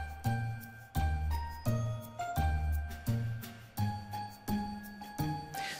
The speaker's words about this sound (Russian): Давайте, джингл-белл с ним по полной.